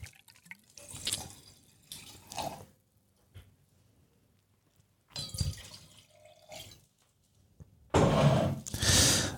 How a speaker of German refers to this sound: Nachgeschenkt.